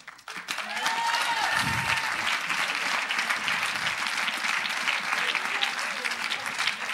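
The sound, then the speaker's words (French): An audience applauds steadily for the girls of Pasteur, a dense wash of many hands clapping that swells in within the first second and holds at a strong, even level, with a few cheers and whistles rising above it. “Maintenant, on va applaudir les filles de Pasteur.”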